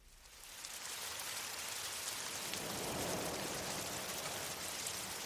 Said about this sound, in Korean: 사흘간 비가 오락가락했다. 그것만으로도 가을이 깊어버렸다.